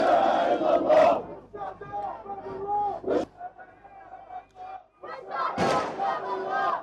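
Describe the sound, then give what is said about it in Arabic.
An angry crowd of Palestinians chants and shouts together at a funeral for seven people killed in a refugee camp, many voices rising in loud, surging bursts with brief lulls between them, raw and forceful throughout. “يشيع الفلسطينيون هنا سبعة شهداء ارتقوا خلال عدوان الاحتلال الذي استمر لخمسة عشر ساعة وسط هتافات غاضبة تؤكد على المخيمة سيبقى حاضنة شعبية للمقاومة”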